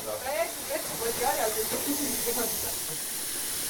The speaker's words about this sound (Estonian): ma panen igaks juhuks ka kraanid jooksma, et see vesi liikuma hakkaks. Nad arvasid, et see võib isegi kakskümmend minutit siit tegelikult selle kaevuni minna.